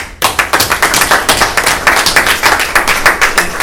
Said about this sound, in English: So, on behalf of myself, and I'm sure the commissioners, we'd like to give you all a round of applause for the great job y'all did today.